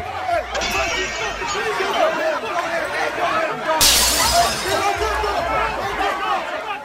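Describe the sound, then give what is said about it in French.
A loud, rowdy crowd brawls in a beer hall, shouting and clamoring continuously while beer mugs thrown across the hall shatter with a bright crash midway, followed by scattered clinks and more breaking amid the din. “Des chopes de bière commencent à voler d'un bout à l'autre de la brasserie.”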